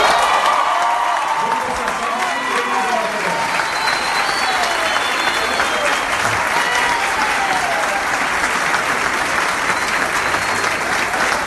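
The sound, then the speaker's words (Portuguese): Sustained audience applause for the author of an initiative, a dense, steady wash of many hands clapping at an even loudness for about eleven seconds, with faint cheering or voices mixed into the crowd noise. “Transfiro com absoluto merecimento essas general das palmas para o autor da iniciativa”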